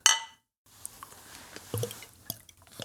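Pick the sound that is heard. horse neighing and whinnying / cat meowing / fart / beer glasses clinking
beer glasses clinking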